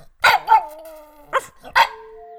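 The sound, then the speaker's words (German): A dog barks four times, two quick barks followed by a pause and two more, each bark leaving a brief ringing tail before silence. “Wenn Sie mir nicht sofort meinen Knochen. Ruff, ruff, ruff”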